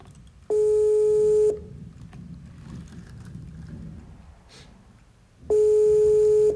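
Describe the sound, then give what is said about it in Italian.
A steady electronic ringback tone of an outgoing audio call sounds twice, each burst about a second long with a few seconds of quiet room noise between, clear, like a phone call waiting to connect. “Chiamata audio, spazio, e come vedete è partita la telefonata.”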